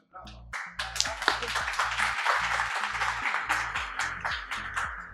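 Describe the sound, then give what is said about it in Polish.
Steady applause from a crowd, a dense crackle of many hands clapping that continues for about five seconds, with a low, stepping musical tone running underneath. “Zdecydowanie brawa”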